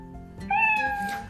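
A single drawn-out cat meow, fairly loud, with a clear tonal rise and fall lasting under a second. No one speaks around it.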